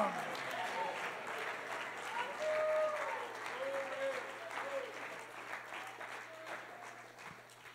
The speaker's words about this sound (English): All of you daddies standing and clapping your hands, I expect this next one if you do the same thing.